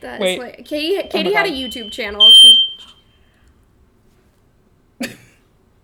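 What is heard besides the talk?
fire alarm going off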